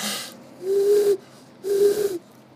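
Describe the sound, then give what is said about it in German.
A person imitates an eagle owl, giving two low, steady hoots about a second apart, each held for around half a second with a breathy edge. “Aber vorher muss ich dir zeigen, wie gut ich ein Uhu nachmachen kann.”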